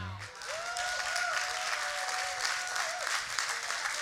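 A crowd applauds steadily for several seconds, a dense wash of many hands clapping at once, with a sustained high whoop or held tone riding over it partway through.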